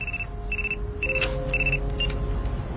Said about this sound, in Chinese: 陈国忠的电话也响了起来。